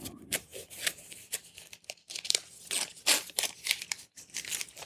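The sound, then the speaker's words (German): Crinkling and rustling of paper and cardboard as Apple headphones, their ear cups set in paper and cardboard, are pulled out of their packaging, with irregular bursts of scraping and crumpling, no talking. “Also die Hörmuscheln sind hier ziemlich gut in Papier und Pappe eingelegt.”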